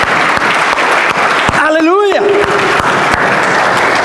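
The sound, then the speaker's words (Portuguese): A church audience applauds God with loud, sustained clapping throughout, and in the middle a voice cries out briefly over it in a rising, wavering tone. “Só quem vive melhor de Deus, aplauda Ele, amém?”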